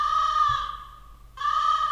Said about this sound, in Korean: 네, 까마귀 네, 울었고요.